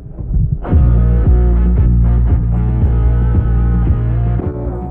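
A southern rock song recording plays loudly on radio station Kilo 94, with heavy low-end guitar and bass and a steady driving beat, slightly muffled and band-limited, with no voices over it.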